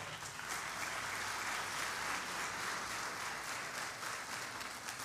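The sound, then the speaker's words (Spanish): An audience claps for the King in a steady, dense burst of applause that holds at an even level for several seconds, with no voices standing out. “Dele palmas al rey, hermano.”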